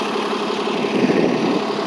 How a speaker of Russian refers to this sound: Извиняюсь, что на фоне автобуса на улице говорю.